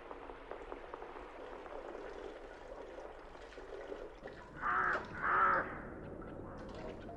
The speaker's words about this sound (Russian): Ну что каркаешь? Неужели не накаркалась?